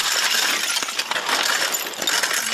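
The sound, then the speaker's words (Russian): Continuous brittle clattering and scraping as municipal workers in Kurakhove clear away shards of slate roofing damaged in shelling, around 7 a.m., fairly loud, with overlapping clinks and crunches and no voices. “мы сейчас разбираем э, шифер, который был поврежден при падении.”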